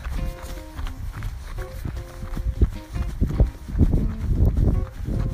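Steady, rhythmic footfalls of someone jogging gently during a cool-down after a workout, thudding at an even pace, with faint tonal music sounding in the background.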